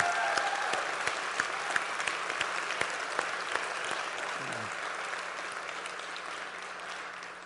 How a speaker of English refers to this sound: Why don't we give these people just a round of applause? Thank them for their service.